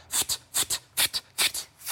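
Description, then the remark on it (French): During a breathing exercise, voices imitate a cat with sharp, breathy hissing bursts, delivered in quick pairs in a steady rhythm, fairly loud, with no talking in between. “Et maintenant, on fait le chat.”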